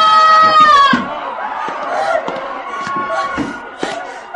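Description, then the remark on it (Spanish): A chaotic jumble of several voices shrieking and yelling at once, with one high, strained cry standing out at the start, over sharp knocks and thuds, loud. “¿Qué son esos gritos?”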